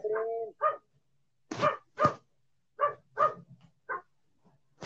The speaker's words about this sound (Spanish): Encierro, diles, o diles que no ladren.